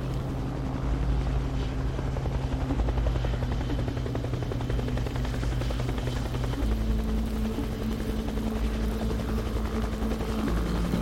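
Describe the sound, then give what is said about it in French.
A helicopter flies low over vineyard plots to stir the air and bring down warmer air, its low, steady rotor thump and engine drone loud and continuous throughout, with no voices. “ces hélicoptères qui volaient au-dessus des parcelles assez bas pour essayer de brasser l'air et de ramener un air plus chaud.”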